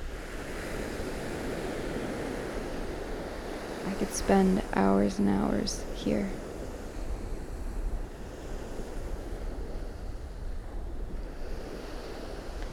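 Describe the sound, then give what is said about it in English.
Steady surf washes onto a beach, a continuous rushing roar with some wind, while a person speaks briefly in the middle over the sound of the waves. “Depending on the weather, but in general, I think the beach is my favorite place. Watching the sea,”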